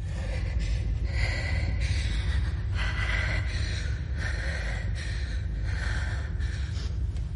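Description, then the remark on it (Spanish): A woman in a bathroom, having a nervous attack, breathes heavily and nervously as she tries to control her breathing, steady, with quick ragged breaths and sharp gasping inhales repeating about once a second, with no talking. “Mira al espejo y trata de controlar su respiración.”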